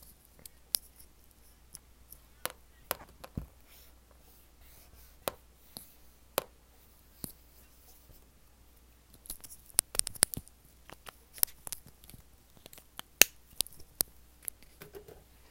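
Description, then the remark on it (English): ASMR sounds on a whiteboard: quiet, crisp taps and scratchy clicks, scattered at first and then bunching into a busier flurry near the end, with no talking. “Alright, that was the whiteboard.”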